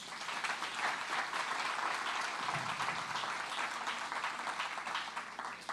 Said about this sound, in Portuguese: Será que você pode aplaudir Jesus por isso?